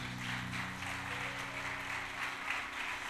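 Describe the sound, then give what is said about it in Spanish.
A crowd applauds in praise to the Holy Spirit, a dense, steady wash of many hands clapping at once, with a low sustained musical tone humming underneath throughout. “Vamos a darle palmas de alabanza al Espíritu Santo por eso.”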